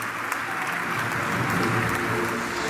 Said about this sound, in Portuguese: a todos os nossos autarcas pelo país todo, ao nosso grupo parlamentar e ao nosso grupo de assessores, eu gostava de dar uma grande salva de palmas, que eles são o sinal do nosso trabalho, do nosso orgulho e da nossa força política hoje em Portugal.